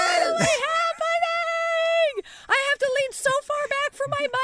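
A person shrieks excitedly and loudly: one long, sustained high-pitched wail that bends down at the end, followed by a string of shorter, choppy yelps and cries.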